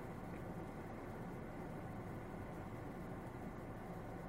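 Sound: car interior noise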